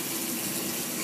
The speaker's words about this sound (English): this is the sound of her butt being cleaned. I hope uh, you enjoy it.